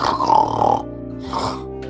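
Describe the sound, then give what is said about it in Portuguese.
A person imitates a creature's raspy, rattling breathing: a long gravelly exhale, a brief pause, then a shorter rough burst, low-pitched and throaty, moderately loud with no other sounds. “Esse barulho é da respiração dele.”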